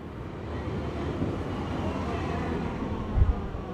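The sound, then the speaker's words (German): A steady, broad rumble of a train moving through the Storkower Straße S-Bahn station in Berlin in early February, with a brief low thump near the end; no voices are heard. “S-Bahnhof Storkower Straße in Berlin, Anfang Februar.”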